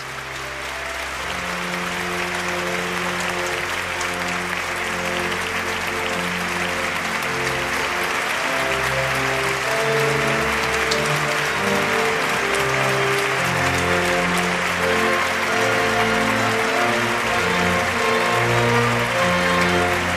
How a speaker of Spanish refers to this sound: Les invita a Monseñor José Ángel Said Meneses a ponerse junto a él en el altar y reciben el aplauso de todos los presentes.